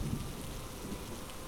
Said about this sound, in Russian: Раскаты молний пробивали ночное небо, рисуя пугающие линии жизни. Дождь не лил, но будто бил землю каждой каплей.